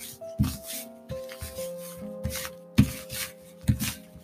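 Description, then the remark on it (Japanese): Tarot cards being shuffled, a series of soft papery rubbing and riffling bursts repeating irregularly over a few seconds, with a faint steady tonal hum underneath and no voices. “ではね、また例によってタロットをシャッフルしていきます。”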